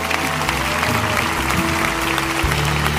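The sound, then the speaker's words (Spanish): A crowd applauds steadily, a dense wash of many hands clapping at once, loud and sustained for the whole stretch, with a low musical hum and faint voices underneath. “A todos, denles un buen aplauso a ellos.”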